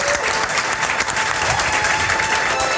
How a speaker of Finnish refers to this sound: raikuvat aplodit